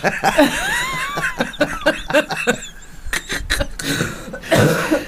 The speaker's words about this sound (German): Entschuldigung, ich bin immer noch, ich habe ein bisschen Husten noch.